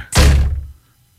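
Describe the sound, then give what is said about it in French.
A single loud thud as a woman trying to leave the house walks smack into a freshly washed glass patio door, the heavy impact ringing briefly with a low, dull rumble before fading out. No voices. “Elle venait juste de laver à porte-patio.”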